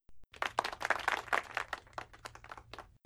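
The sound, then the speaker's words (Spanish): A short round of applause: many hands clapping in a dense, irregular patter that swells quickly, holds for a few seconds, then thins out toward the end. There is no talking. “Aplausos, aplausos.”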